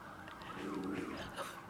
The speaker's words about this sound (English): there's uh, sirens in my neighborhood right now, and Stella's in the room.